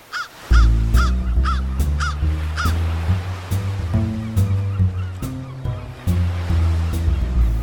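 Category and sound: bird, crows cawing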